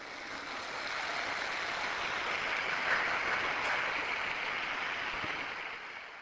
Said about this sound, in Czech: Potlesk novému blahoslavenému Jean Baptistovi. Un aplauso al nuovo beato Jean Baptiste.